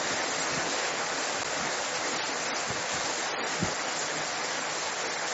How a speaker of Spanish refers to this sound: Y se escucha bien. Gracias, porque en verdad está lloviendo fuerte, fuerte.